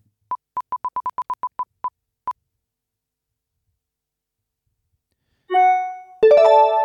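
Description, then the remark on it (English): A laptop notification chime rings out, two bright layered tones close together near the end, following a quick run of light ticks that slow and stop. No one speaks. “All right, the Roosters, as I get a little notification there on the laptop, that's always fun.”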